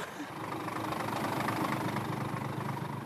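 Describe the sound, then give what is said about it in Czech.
A truck engine idles, a steady, continuous rumble with a faint rhythmic chug running through it the whole time, fairly loud and unchanging. The truck has just been driven in from Prague. “Kdo přijel s tím kamionem?”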